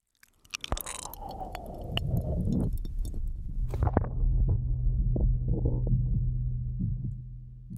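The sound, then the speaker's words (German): A muffled heartbeat thumps steadily beneath a dense, low whooshing rumble, as heard by an unborn baby inside the mother's belly, continuous with no voices. “Und so klingt das dann übrigens aus der Perspektive des Babys im Bauch der Mutter.”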